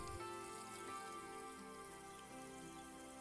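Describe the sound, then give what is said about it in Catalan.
Steady patter of water falling onto the leaves and soil of plants while they are watered, a continuous soft spattering like rain, fairly even throughout, with no voices. “Quan reguis les plantes, experimenta l'amor. a mesura que va caient l'aigua a sobre de les plantes.”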